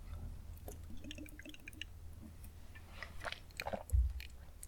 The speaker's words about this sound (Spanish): Y pausa para trago de agua.